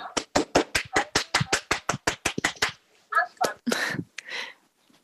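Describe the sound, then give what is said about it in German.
An audience in the room claps to thank a presenter, in a quick, steady rhythm, about fourteen sharp, loud claps over nearly three seconds, then the clapping stops and a few short voices call out. “Bitte an alle, die jetzt im Raum sind, kurz mal klatschen und, und, und, und, und herzlichen Dank dafür.”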